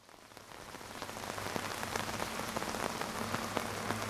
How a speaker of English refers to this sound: I still remember because I looked at my watch about 2:47 a.m. I was awakened by what sounded to me like heavy rain. And I was very excited about that. So I threw my shoes on, I hopped out of the tent. Sure enough, I could feel it coming down.